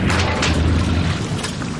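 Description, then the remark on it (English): A boat propeller strikes a really big rock, producing a loud, continuous grinding rumble with deep low-end thuds and scraping bursts, harsh for a couple of seconds with no talking. “And there's the sound of the prop”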